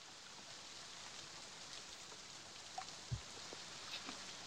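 Rain falls steadily as a soft, even hiss, with a few sharper drips and taps standing out now and then; no one speaks.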